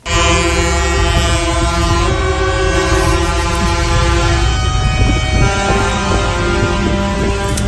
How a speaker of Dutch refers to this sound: Boeren protesteren vandaag in Brussel, waar de Europese ministers van Landbouw samenkomen. Vanochtend vroeg kwamen de boeren al toeterend de stad binnen.